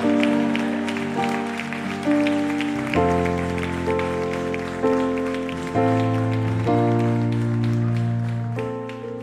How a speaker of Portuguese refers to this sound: Será que eles podem dar um grito de guerra? Será que eles podem dar um aplauso de louvor ao Rei da Glória?